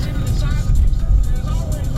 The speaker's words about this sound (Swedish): Idag får ni lyssna på introt i min bil.